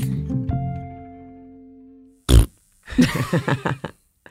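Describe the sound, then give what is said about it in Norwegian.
A sustained tone fades out, then a single short, loud, low fart-like blurt bursts out, followed shortly by people talking. “Skal du late som jeg prompa?”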